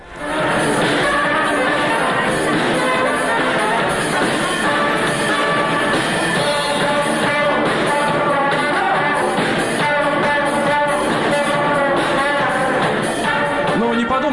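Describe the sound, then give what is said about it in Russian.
A brass band with trumpets, French horns and a saxophone plays loudly and continuously in the metro, with bright sustained horn notes layered together in a reverberant space and crowd noise underneath. “это э, просто оркестр из ду- духовых инструментов.”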